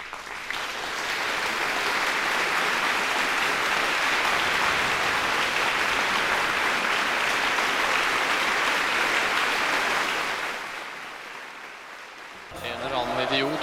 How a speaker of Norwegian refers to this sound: Så hun får eh, ja, ukas applaus.